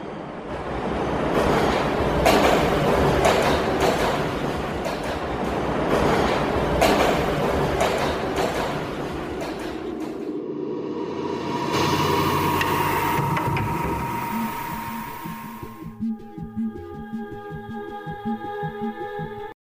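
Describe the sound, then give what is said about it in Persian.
A metro train rumbles along the rails with rhythmic clacking, loud and close, then the noise shifts to a steady tonal hum and whine as it slows, with no voices. “بخش متروهای دنیا رو با هم میشنویم”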